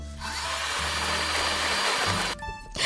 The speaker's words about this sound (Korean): 그 와중에 제일 황당한 건 믹서기예요. 믹서기까지 제 방에 와 있는데요.